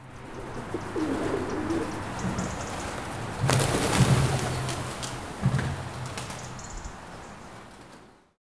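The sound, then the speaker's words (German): Pigeons in a dovecote cooing in low, throaty, repeated murmurs over a steady bed of rustling background noise, with a few brief flutters and a louder burst of activity midway. “dass sie auch dort in diesem Taubenschlag dann sich wohnhaft aufhalten, dass sie gut tierartgerecht betreut sind, dass man konsequent die Geburtenkontrolle umsetzt”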